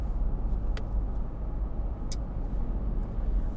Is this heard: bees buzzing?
no